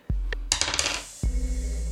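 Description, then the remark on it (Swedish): A die is rolled on a table for a skill check in a tabletop game, landing with a sharp knock, then clattering and tumbling in a quick run of small hard taps before settling with a final thud. Fairly loud, no talking. “Du kan ju slå ett ego samhällsvetenskap. Ska vi se, så 5 eh, plus 1 plus tärning.”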